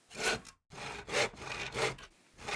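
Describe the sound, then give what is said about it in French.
A hand saw cuts through wood in three or four steady, rasping strokes, each a broad scratchy swell, with a brief pause after the first; fairly loud, no voices. A man saws to repair the bottom of a door, improving the insulation of a shared house in a community at Biofalou. “Quand nous l'avons aperçu pour la première fois, Aurel faisait chanter sa scie pour réparer un bas de porte afin d'améliorer l'isolation de la maison partagée dans laquelle il habite.”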